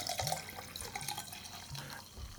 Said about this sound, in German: Ähm, Meine ja, Damen genau, und Herren, Sie hören, wie Sebastian etwas zu trinken einschenkt. Nee, nee, das bin ausnahmsweise ich. Oh, Tom ist es. ausnahmsweise bin ich das.